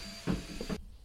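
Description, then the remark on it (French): A vacuum cleaner whirs steadily in the background with a constant high whine and some low thumps, then its roar cuts out abruptly just before the end. No one speaks. “Et je suis désolé pour le bruit de l'aspirateur, mais on ne peut pas faire autrement parce que j'ai pas le temps d'enregistrer plus tard.”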